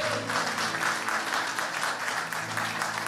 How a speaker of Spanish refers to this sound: Así que celebramos con un fuerte aplauso a todas las personas que lo han hecho por primera vez.